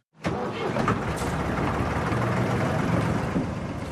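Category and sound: vehicle, boat engine running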